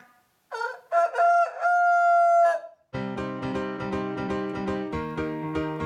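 A rooster gives one loud crow, a rising call that stretches into a long, held, strained note. Right afterward a bouncy tune with a steady beat starts up.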